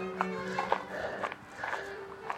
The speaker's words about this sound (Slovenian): Torej, frekvenca korakov. Zakaj to poudarjam? Punk, punk, punk, punk. To je frekvenca približno 180 korakov na minuto